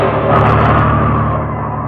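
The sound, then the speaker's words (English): A loud car engine roars steadily with a deep rumble and broad road noise as the car is driven along a road, easing slightly toward the end. No voices are heard. “The car swerved from side to side”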